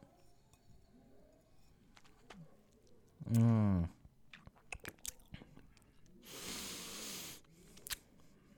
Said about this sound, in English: I gotta take another sip.